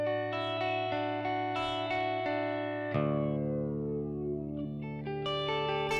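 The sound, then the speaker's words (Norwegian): A Telecaster electric guitar with a little overdrive plays sustained chords run through a flanger, the tone sweeping with a swirling, jet-like whoosh as the notes ring out, loud, with no voices. “Så kommer flangeren.”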